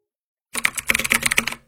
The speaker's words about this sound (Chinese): 邹强坐在电脑前，手指在键盘上快速跳动。